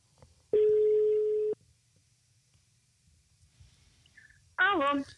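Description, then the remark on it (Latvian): A single steady ringback tone sounds for about a second on an outgoing phone call to a guest, followed by quiet line hiss, then a voice briefly speaks right at the end. “Un uh, mēs tūlīt viņai arī zvanām.”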